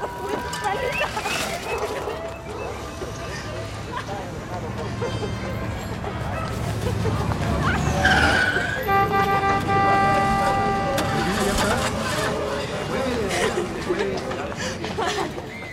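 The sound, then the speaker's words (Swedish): A busy city street in Mexico City in 1971 hums with steady car traffic and a sustained horn blast midway, while indistinct voices chatter in the background throughout. “så mycket fågelkvitter och, och, och olika barnskratt och hundar och, och, liksom trafik och det är så många olika ljud som hela tiden bygger upp den här vardagen som vi befinner oss i.”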